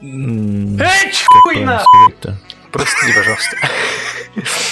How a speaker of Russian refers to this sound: Я даже не понял, ты чихнул или на кота наорал просто. Я чихнул.